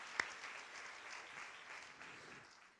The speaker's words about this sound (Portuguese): Vamos dar uma salva de palmas ao nome de Jesus, amém?